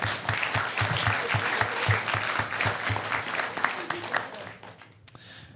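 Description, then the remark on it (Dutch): An audience applauds steadily, a dense wash of many hands clapping at once with sharp individual claps standing out, before the applause thins and fades away near the end. “Applaus. Dankjewel.”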